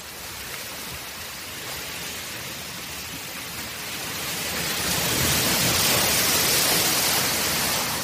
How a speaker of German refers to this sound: Herrlich. Ein paar Wellen, Sand, nicht zu heiß, bisschen Wind.